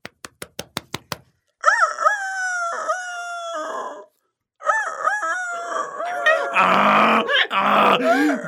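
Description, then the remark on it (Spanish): A rooster crows frantically and loudly, long strained cock-a-doodle-doo calls repeating one after another, preceded by a quick series of sharp knocking taps. “Ha ordenado a la cocinera que esta noche me corte el gaznate y me convierta en gallo en chocolate. Por eso grito desesperado con todas mis fuerzas.”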